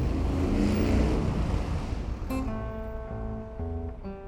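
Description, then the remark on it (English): A loud Indian 500 motorcycle engine roars at speed, ridden flat out through New York city streets, a rushing blur of noise that settles into a steady, buzzing high-revving drone, continuous with no voices. “He has another motorbike in New York, an Indian 500, rides it flat out through those ram jam city streets.”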